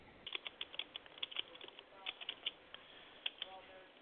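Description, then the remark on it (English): Someone types on a computer keyboard in quick, uneven bursts of soft clicking keystrokes, fairly quiet, with brief pauses between flurries of taps. “I can hear you tapping.”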